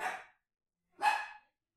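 A pet dog, Trixie, barks twice, the first bark cut short at the start and the second a fuller, sharper bark about a second later, with silence between them.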